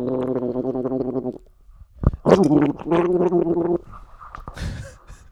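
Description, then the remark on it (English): Someone gargles liquid while humming a tune, producing bubbly, warbling pitched notes in two close, fairly loud phrases separated by a short pause, ending in a sputtery splash. “I can't even hear it, and I'm the one fucking singing it.”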